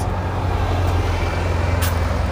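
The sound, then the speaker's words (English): A steady low rumble of heavy road traffic as buses roll past on a busy street by a hospital, lined with plane trees, on a warm, cloudy day without rain, with a couple of brief high hisses cutting through the drone. “buses going past everywhere people on their lunch breaks from working in the hospital, strolling past.”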